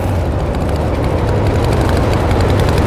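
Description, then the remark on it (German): A rough, struggling, backfiring motorbike engine chugs loudly and steadily with bangs and pops, its uneven sputtering pulses carrying through the whole stretch with no voices. “Plötzlich hören sie aber ein Lutz Knallen und Puffen und hinter ihnen steigt langsam schwarzer Rauch aus dem Dörf.”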